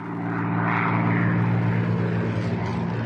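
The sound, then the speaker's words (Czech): A fighter plane's propeller engine drones steadily and loudly throughout, a thick low harmonic hum with a rough, roaring wash above it and no voices. “Máš Messerschmitta na zádech.”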